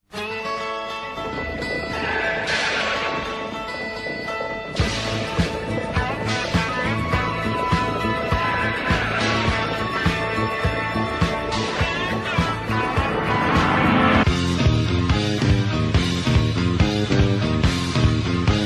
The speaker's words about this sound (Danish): Det er Stan Hansens …theme fra All Japan.